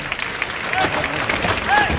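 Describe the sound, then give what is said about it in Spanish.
Steady applause from spectators in a bullring during a bullfight as Paco María rides his horse along the callejón, a dense wash of clapping that stays fairly even throughout, with faint voices and a few brief whistle-like tones rising over it. “Y le van aplaudiendo los espectadores.”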